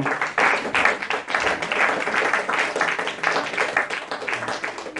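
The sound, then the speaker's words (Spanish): A crowd claps steadily for several seconds, applauding the Lord for the good news, a dense, continuous wash of many hands applauding at fairly even loudness, with faint voices mixed in underneath. “Den un aplauso al Señor por esa buena noticia.”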